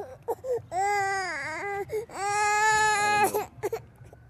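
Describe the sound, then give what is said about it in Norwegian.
A baby cries in two long, wavering wails with short whimpers and babbly sounds in between, fairly loud, with no adult talking. “Er dette, er dette her lyden av eh, sånn pappaprat?”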